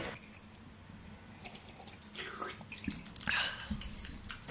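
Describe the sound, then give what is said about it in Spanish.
Soft slurping sips of hot tea, a few short wet bursts with faint liquid gurgles and breathy air, quiet at first and growing slightly louder toward the end. “Me está, estás bebiendo té, me está, me está mirando con ojos de Vale, vale, pero escuchad mientras bebo té.”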